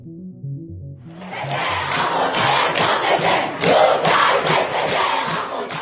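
A large crowd of protesters in the streets of Iran chants loudly in unison, voices rising in rhythmic, repeated bursts that fill the space, following a brief low murmur at the start.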